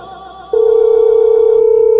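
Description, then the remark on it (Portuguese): A phone line ringing on an outgoing call: a loud, steady mid-pitched tone kicks in after a brief fainter hum and holds unbroken to the end, with no voices. “É tá chamando aqui”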